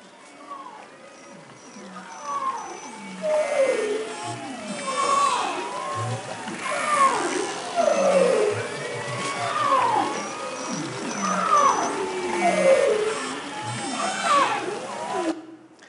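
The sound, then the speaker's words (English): A dense underwater chorus of Arctic marine mammal calls: overlapping rising and falling whistles, trills and moans layered continuously, some loud, others faint, with no voices present. “Arctic marine mammals live in a rich and varied underwater soundscape. In the spring, it can be a cacophony of sound.”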